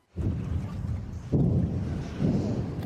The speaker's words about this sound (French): au loin, on peut toujours entendre le bruit sourd des bombardements. Des explosions qui proviennent justement de cette usine Azovstal, rendant l'évacuation des quelques centaines de civils restants impossible.